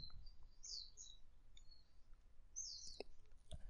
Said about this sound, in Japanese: あの、鳥のね、さえずりが聞こえてきて、なんか、こう、今ヘッドホンかけて聞いてるといいですね。